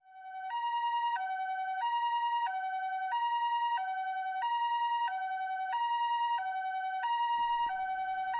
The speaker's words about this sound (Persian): خب این صدای آژیر آمبولانس هستش درسته؟ به زبان ژاپنی اون رو به این ترتیب توصیف میکنن. بیپو.